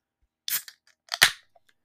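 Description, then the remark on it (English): A can or bottle of Island Ale from Alaskan Brewery being opened: two sharp, crackling pops about three-quarters of a second apart, each trailing into a short bright fizz, with no talking. “That's the sweet sound of an island ale from Alaskan Brewery.”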